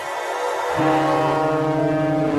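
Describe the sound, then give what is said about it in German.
A loud, sustained ship horn of the Polarstern, Germany's largest research vessel, blares with a deep, steady harmonic tone, swelling in strength after a brief moment and holding on without a break. “Dieses Schiffshorn gehört zum größten deutschen Forschungsschiff zu der Polarstern.”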